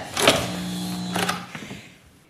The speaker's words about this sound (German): Immer wenn es brummt, das Geräusch, das Sie da hören, betätigt Miss Willington den Hebel der Zeitmaschine